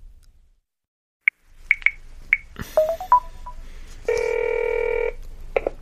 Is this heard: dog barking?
no